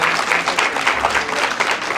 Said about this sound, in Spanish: Y para nuestra liderada caballero, nuestra mamá, también un aplauso para todos.